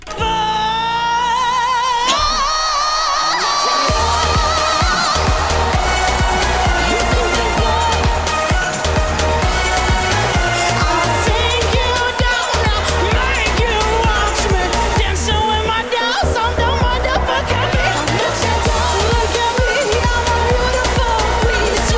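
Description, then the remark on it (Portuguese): A loud, dense rock song plays throughout, driven by heavy bass and distorted guitars, while a woman's voice shouts and strains over the band at full intensity. “Mas grita muito, a senhora grita muito, eu assustei-me um pouco.”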